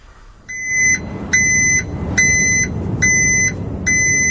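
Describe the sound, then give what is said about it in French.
A small truck's reversing alarm sounds five evenly spaced, loud electronic beeps, each about half a second long, over a steady low engine rumble as it backs up. “Un petit camion qui recule pour ces six sujets.”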